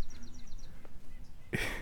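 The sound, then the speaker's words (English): A bird chirps a quick run of about six high, thin notes outdoors on a beautiful day, followed by a brief rustling burst near the end. “You might be able to hear the breeze and the leaves or the birds in the background.”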